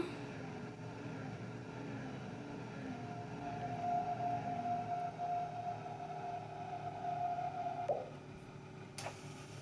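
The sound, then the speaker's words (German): A steady low rumble of a simulated train with a thin, sustained high-pitched squeal rising over it for several seconds, like brakes grinding, ending with a sharp click near the end. The train is braking late as it arrives at Oberwürzbach station in a train simulator. “bremse jetzt mal relativ am Ende.”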